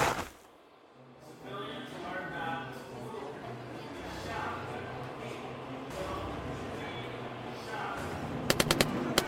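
A burst of several sharp gunshots cracks out in quick succession near the end, none aimed at SCP-096, following a long stretch of loud, chaotic rumbling commotion with indistinct crowd noise from a crowd of townsfolk.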